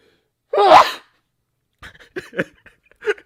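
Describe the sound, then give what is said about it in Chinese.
A single loud, explosive sneeze bursts out near the start, followed after a brief silence by a few soft, short vocal sounds. “怎么听完有点打喷嚏的感觉啊？”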